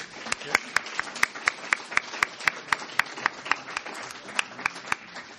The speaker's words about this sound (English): another round of applause for Ken Allen